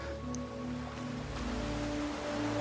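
A continuous, steady wash of ocean waves rolling onto a beach, with soft sustained low tones humming underneath and no voices.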